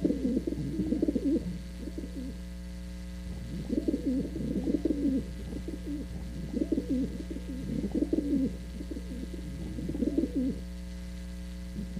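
Pigeons coo in repeated low, throaty bursts roughly every two to three seconds, steady, with no talking and a faint background hum underneath.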